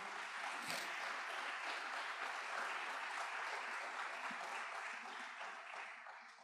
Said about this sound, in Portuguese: Você pode aplaudir o Senhor nessa noite, mais uma vez.